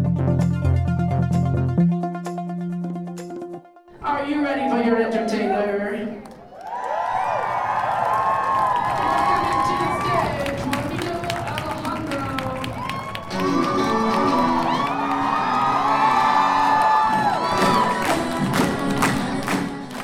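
An audience at a drag show in the University Center Ballroom at the University of Montana roars and cheers loudly and continuously, with shouts and whoops rising over dense, sustained noise, after a brief burst of music at the start.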